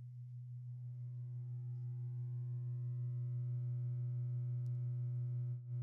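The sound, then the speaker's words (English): A steady, low alpha-range binaural beat tone drones continuously at an even volume, smooth and unbroken, with faint higher overtones and no voices or other sounds around it. “It won't be a loud one, but it'll be a click, and then we'll go right into alpha.”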